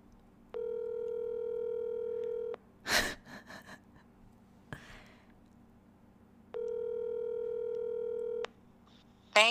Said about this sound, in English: We're going to call my sister because her phone's messed up, apparently.